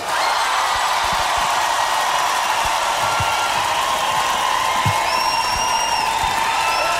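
An audience breaks into sustained applause with cheering and a few whistles for radio reporter Erik Korton at 3FM Serious Request, a dense steady wash of clapping that stays loud and even throughout.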